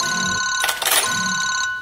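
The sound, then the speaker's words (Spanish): A telephone rings with a bright, sustained electronic tone, steady, broken midway by a brief burst of noisier clatter before the ringing resumes. “¿De quién es este teléfono?”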